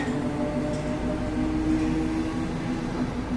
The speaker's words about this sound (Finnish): siinä näköjään lähtee juna jonnekin juuri. Katsotaan, minne se menee.